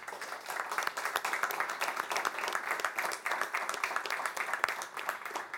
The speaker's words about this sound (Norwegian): Det er det ikke, så da vil jeg si tusen takk til alle paneldeltakerne. De fortjener en applaus fra publikum.